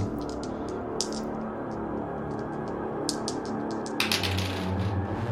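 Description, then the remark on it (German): Dice, including a twenty-sided die, clatter and tumble across a hard tabletop in several rattling bursts of sharp clicking impacts, with a steady low room hum underneath and no talking. “Ich war noch nie so frustriert beim Würfeln, Alter.”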